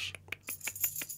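A beer bottle being opened: a quick run of about six sharp metallic clicks and clinks over a low steady hum, with no voices.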